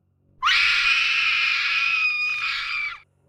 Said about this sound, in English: The princess's screams rang through the shoreline.